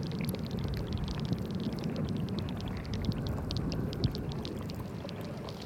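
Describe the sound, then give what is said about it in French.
Steady rushing, gurgling underground water currents flow continuously with a deep low rumble and bright trickling splashes on top, fairly loud, with no voices. “Sous la terre, le rythme effréné des rues se dissout en longues courte d'eau et j'ai l'impression que mes oreilles se remplissent d'ondes liquides.”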